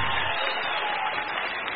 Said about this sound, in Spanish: Bueno, démosle un aplauso más fuerte